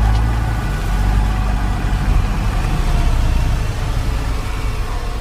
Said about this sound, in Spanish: Simón está en un embotellamiento. Los autos avanzan de a poco.